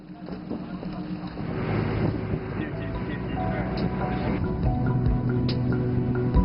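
A motorboat engine drones steadily on the water in cold weather during a 20-minute ride to Jiangdao Island, a low rumbling hum that grows slightly louder over several seconds, mixed with wind buffeting and splashing.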